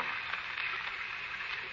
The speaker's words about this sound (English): Hey, looks like the rain's letting up. Should clear off soon.